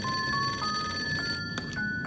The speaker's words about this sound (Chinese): 电话铃响了。